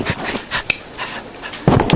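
A dog whimpers and whines, a few soft breathy sounds building to a louder, higher whine near the end, with a couple of sharp clicks in between.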